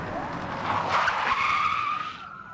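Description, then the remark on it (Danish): Car tires squeal loudly in a sustained, rising skid lasting a couple of seconds, with the rush of a speeding car behind it, ending abruptly, during a police chase by five patrol cars after a charcoal-grey Volkswagen Golf on a country road just west of Horsens. No voices. “Der var en biljagt i gang.”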